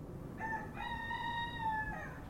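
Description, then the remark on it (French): A single rooster crow rings out, drawn-out and tonal, over a steady low outdoor rumble with no one talking; the rooster is in a neighbouring garden in a suburb of Paris. “Et j'espérais secrètement que tu puisses entendre le coq qui est dans le, jardin d'à côté chanter, parce chante souvent le matin.”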